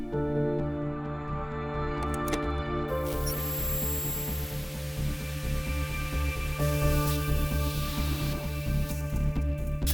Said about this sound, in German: Wir hören uns mal kurz gemeinsam an, wie das klingt, wenn man weißes Rauschen ein bisschen mit Musik abmischt.